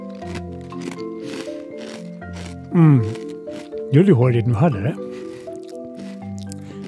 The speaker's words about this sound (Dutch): Nee, dit klinkt wel smerig. ja, dat smakken, dat, dat gaat, wel een stapje ver hoor.